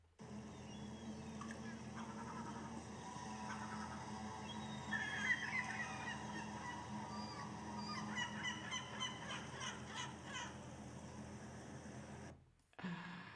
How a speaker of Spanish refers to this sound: Muy, muy bien. Las gaviotas. Las gaviotas. Esto era sonidos de gaviotas. Las gaviotas.